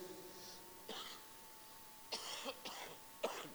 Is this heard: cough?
yes